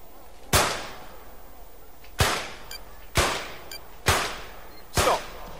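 Five sharp pistol shots at target shooting crack out one at a time at uneven intervals, each loud with a brief ringing decay, over a steady low background hiss.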